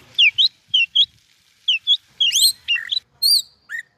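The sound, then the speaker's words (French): A person whistles an imitation of a song thrush in Marseille, a demonstration by a competitor in the European bird-song imitation championship: a series of bright, clear phrases with quick up-and-down sweeps, some notes repeated in pairs, loud, with short pauses between. “Là, je vais vous faire la grive musicienne.”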